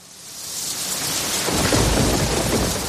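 Steady rain hisses across the whole recording, and a deep rumble of thunder swells in around halfway through, growing louder and fuller. No voices are heard.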